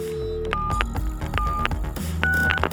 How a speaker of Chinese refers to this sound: 他哭着，挣扎着，用他最后的力气爬向了电话，拨打了一一零。